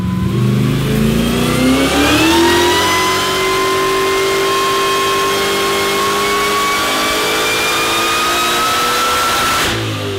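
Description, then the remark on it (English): A VK Commodore, the 'Blue Meanie', fitted with a Harrop H2650i inverted supercharger, revs up loudly, climbing in pitch over the first seconds, then holding a sustained high, whining roar before cutting off abruptly, in a video made by Harrop. No one speaks. “Blue Meanie, Steve's um, VK here, with the uh, 2650 uh, H2650, H2650i, I believe it's called, because it's, uh, it's an inverted supercharger.”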